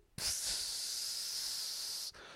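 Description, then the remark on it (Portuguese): A voice imitates an old dog peeing indoors with one steady, loud hiss lasting about two seconds, like a trickling stream, starting abruptly and cutting off cleanly, with no talking. “Um, pá, passo e de repente começo a ouvir tipo um som do riacho, que é.”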